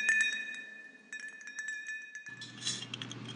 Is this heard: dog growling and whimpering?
no